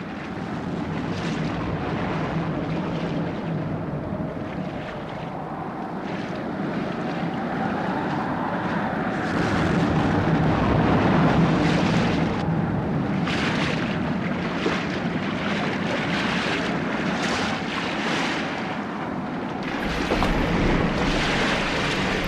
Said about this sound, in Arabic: دار البحر يا رايس ربي يستر انا نكره كان هالطقس اللي يقلب في لحظه